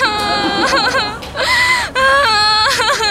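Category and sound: human body sound, crying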